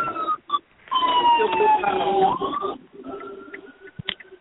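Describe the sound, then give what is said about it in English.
A loud emergency vehicle siren wails with a steadily falling pitch as it passes, then a fainter steady tone lingers as it moves off, with people talking underneath. “you with some sirens.”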